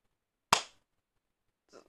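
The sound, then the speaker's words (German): One sharp hand clap rings out on its own and fades quickly, mimicking a whole audience clapping once in unison; after a second of silence, a voice begins speaking. “Und dann wird das Publikum gefilmt und dann klatscht das ganze Publikum einmal.”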